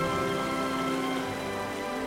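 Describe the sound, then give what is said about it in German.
Water dripping and pattering steadily like light rain, a dense, even spatter that continues for the whole stretch with no one speaking. “Aber woher kommt dieses Wasser?”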